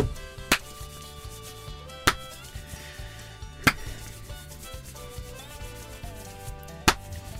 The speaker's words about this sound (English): Are we meant to guess from the claps? No, I'm. I'm, I'm, I'm no, the name of the game is clap.